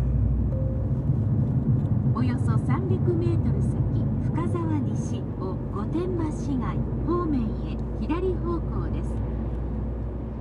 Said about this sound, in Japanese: さあ車に乗り込んでこれから富士スピードウェイに向かいたいと思います深沢西を御殿場市内方面ワクワクするなこれ